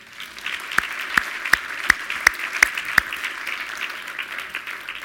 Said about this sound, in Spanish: Un aplauso al Señor. Amén.